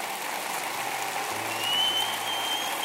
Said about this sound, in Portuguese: Vamos abençoar Jesus com aplauso, ele é digno.